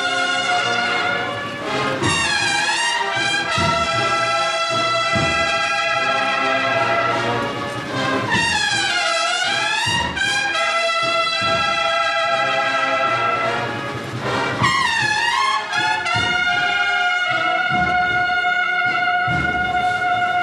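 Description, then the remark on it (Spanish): The Presentación al Pueblo marching band of Dos Hermanas, directed by Luis Palacín, plays a stately procession march in the Cristo de la Expiración ('El Cachorro') procession, brass carrying sustained, swelling melodic lines over steady drum beats, loud and continuous throughout with no voices. “Mientras suena esta banda de dos hermanas de la presentación al pueblo, vemos a Luis Palacín, su director, estos músicos con este uniforme tan elegante.”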